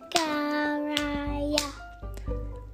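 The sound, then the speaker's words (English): Four sharp hand claps spaced out at a steady, deliberate pace, counting the four syllables of the name Zachariah, each one landing alongside a drawn-out voiced syllable, with a low hum underneath. “I counted four claps.”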